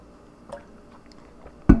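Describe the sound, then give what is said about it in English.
Someone drinks water: a faint wet sip early on, then one loud, low gulp near the end, with no talking. “Oh yeah, drinking water is awesome for audio on the podcast. I'm sure I even picked up the gulp”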